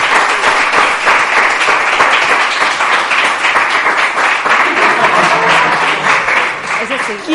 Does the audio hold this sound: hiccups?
no